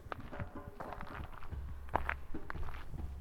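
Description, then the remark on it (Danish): Footstep-like rustling in dense undergrowth behind the trees beside a forest path, a steady series of crunching, brushing steps with continuous leafy rustling and no voices. “Jeg kan høre puslen inde bag træerne. Det lyder som om, der går nogen derinde, men jeg kan ikke se noget.”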